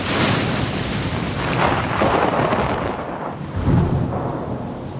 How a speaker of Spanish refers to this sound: Hay tormenta.